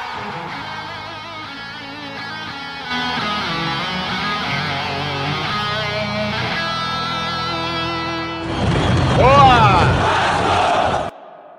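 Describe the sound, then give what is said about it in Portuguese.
A short, bright guitar jingle played for a goal, its first use, with sustained, ringing notes that steps up in loudness partway through, then gives way to a loud burst of shouting crowd voices before cutting off. “Ah, é, hoje nós tivemos a estreia da guitarrinha na hora do gol. Vamos ouvir a guitarrinha?”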